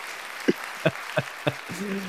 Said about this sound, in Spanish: un fuerte aplauso, aplauso, un fuerte aplauso para ti